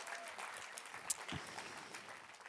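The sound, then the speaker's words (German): Soft, steady applause from an audience during a sermon, a continuous patter of many hands clapping for a few seconds, with a brief sharper clap standing out midway. “Yes, genau, kannst klatschen.”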